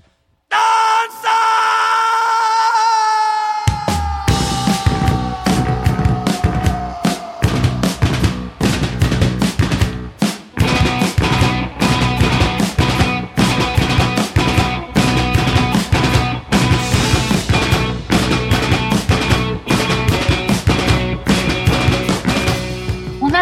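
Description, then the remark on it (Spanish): A live rock song, a live version recorded for KXP, that opens with an eerie sustained, wavering wind-like tone, then bursts into a loud, dense full band with driving drums, traditional pre-Hispanic instruments and shouted vocals. “Verdaderamente es un orgullo que ellos retomen este tipo de sonidos e instrumentos prehispánicos y que lo lleven lejos de las fronteras.”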